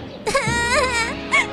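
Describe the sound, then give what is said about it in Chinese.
Several children hugging each other and crying on a subway platform, in a loud, high-pitched, wavering wail that starts after a brief quiet moment, sustains with quivering pitch, then swells again in a short final sob. No talking. “结果她在地铁月台发现了有几个小朋友抱在一起哭。”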